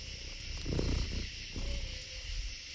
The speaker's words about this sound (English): That is an owl. You know why? Because you just got a lot closer in the woods. That is sick. So, man, I wish you guys were here right now. You can hear all the crickets. You can hear an owl in the background. That's so freaking cool.